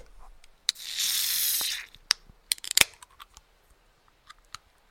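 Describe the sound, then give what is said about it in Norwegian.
A box being opened: a sustained scraping, tearing rasp for about a second, followed by a scatter of sharp clicks, snaps and cardboard taps. No one speaks. “Jeg fikk jo mye lyd ut av eh, å åpne en boks.”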